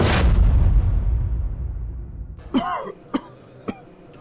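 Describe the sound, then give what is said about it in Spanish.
A loud, booming burst rumbles and fades, then someone lets out a rough, drawn-out cough followed by two short, sharp coughs spaced about half a second apart. “El doctor de la tos.”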